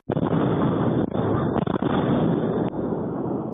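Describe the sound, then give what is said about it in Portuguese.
A rapid sequence of loud, rumbling explosions at a cooperative in Paraná, Brazil, recorded by a camera, merges into a continuous heavy roar, with a few brief dips between blasts and no voices. “Essa outra imagem registrou os estrondos em sequência.”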